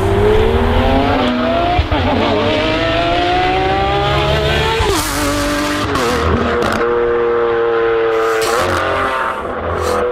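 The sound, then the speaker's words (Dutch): A Novitec Lamborghini Aventador SVJ supercar engine revs loudly, its pitch climbing and dropping through several sharp throttle blips and gear changes, with a steady deep roar throughout and no talking. “Over gas gesproken, we hebben ook wat geluid van de Novitec Lamborghini Aventador SVJ.”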